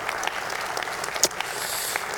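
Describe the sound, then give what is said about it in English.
Light, scattered golf-clap applause from a small church audience at Lufkin First Assembly, after the announced name change to Timber Creek Church, a few polite claps overlapping softly with one sharper clap standing out midway, fairly quiet and brief. “That is a golf clap.”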